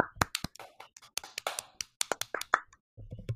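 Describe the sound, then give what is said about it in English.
A small group applauds the Best Director award nominees with sparse, uneven claps, a few hands slapping out of sync for about three seconds before fading to a low murmur. “Round of applause.”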